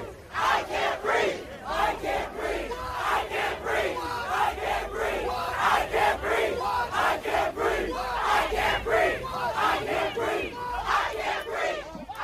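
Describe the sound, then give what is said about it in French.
A large protest crowd in front of the Third Police Precinct in Minneapolis, as it burns, chants the slogan "I can't breathe" in unison, loud rhythmic shouted phrases repeating steadily for the whole stretch, with a continuous roar of many voices underneath. “ça, c'est un son qui a été pris devant le troisième commissariat euh, à Minneapolis, alors que qu'il est en train de, brûler”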